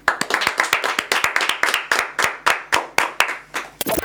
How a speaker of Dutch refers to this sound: En ik wil daar ook voor een eh, hartelijk applaus, denk ja.